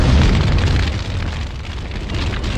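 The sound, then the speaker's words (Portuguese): A loud bomb blast sound effect, called a MOAB, erupts at the start, followed by a heavy, rumbling low-end roar that sustains and churns for a couple of seconds without fading much, with no voices present. “Virando a palha no mesmo assunto, solta Moab, fogo no motor.”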